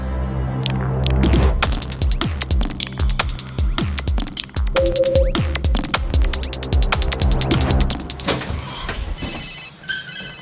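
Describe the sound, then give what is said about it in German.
A mobile phone ringtone plays loudly, a busy electronic melody of rapid repeating tones and pulsing beats that continues steadily for about ten seconds with no talking. “da klingelt ein Handy kein Problem.”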